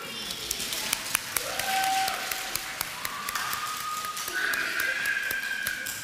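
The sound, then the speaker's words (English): A small round of applause for people going back to their seats: light, scattered handclaps that keep a loose, steady patter for several seconds, with faint high, sustained whistling tones sounding underneath. “You can go back to your seats, and we'll give you a round of applause.”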